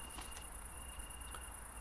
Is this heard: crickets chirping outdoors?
yes